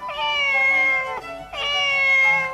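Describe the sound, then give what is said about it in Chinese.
A cat outside a window meows twice in a row, each call a long, drawn-out, high-pitched wail with a slight drop at the end, loud and clear with no talking. “忽然，窗外传来了一声很奇怪的声音。”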